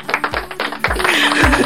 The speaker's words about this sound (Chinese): 感谢刚才导播给我配的稀稀拉拉的掌声，谢谢。